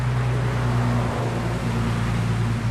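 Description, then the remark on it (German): A steady, loud roar of road traffic in the Great Smoky Mountains, USA, with a low engine hum running underneath, continuous and unbroken for the whole stretch, with no voices. “Selbst wenn wenig los ist, gleicht der Sound der Great Smoky Mountains einer gut befahrenen Landstraße.”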